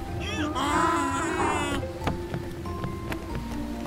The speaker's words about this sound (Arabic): لن تصدقا غزارة الأمطار يا رفاق أنتما مبللان تماما